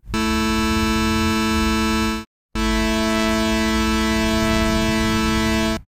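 A pure, steady musical fifth rings out for about two seconds, then after a brief gap an equal-tempered fifth sounds, slightly thicker with a faint beating shimmer. Both are bright, buzzy, synthetic sustained tones.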